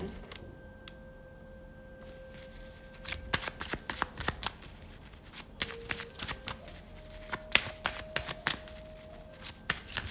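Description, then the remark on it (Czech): Tarot cards are shuffled in rapid bursts of crisp, papery riffles and flicks after a quieter opening, with a faint steady hum running underneath. “Tak na to mrknem, co říkají karty.”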